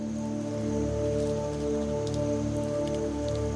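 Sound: rain falling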